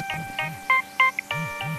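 A mobile phone rings with a bright electronic melody of repeated tonal chirps and short beeps, clear, with no one speaking over it.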